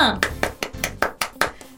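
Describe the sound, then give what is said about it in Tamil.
A quick run of about eight sharp hand claps in a steady, even rhythm, fairly loud, like several people clapping together in unison for a couple of seconds, as everyone claps in praise after a correct answer in a lesson. “நீங்களும் சரியா சொல்லியிருந்தா இந்த கைத்தட்டு உங்களுக்கு சேர்த்து”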